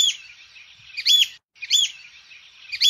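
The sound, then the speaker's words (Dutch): An icterine warbler sings a continuous, scratchy stream of song, with loud, harsh chattering bursts that mimic a magpie's call, repeating roughly every second and a half. The bird is alone. “Ah, daar hoor je wel een schoolhekster in.”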